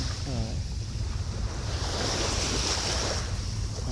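Gentle waves of the Seto Inland Sea wash steadily onto the shore at 5:30 in the morning, a continuous surf hiss with soft swells rising and falling, plus a little wind noise on the microphone and no one talking.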